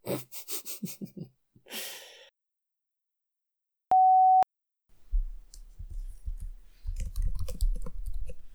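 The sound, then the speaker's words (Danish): A call cuts out: rustling and clicky handling noise, then silence broken by a single steady busy-signal beep, followed by low rumbling line noise and scattered clicks. “du røg, skriver han.”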